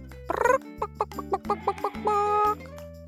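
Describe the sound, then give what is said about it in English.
A chicken clucks: an opening squawk, then a quick run of short, evenly spaced clucks ending in one longer drawn-out cackle, with no talking. “which means chicken.”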